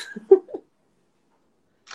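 A single sharp, fairly loud sneeze bursts out during a live stream right at the start, then silence follows until a brief faint rustle at the very end.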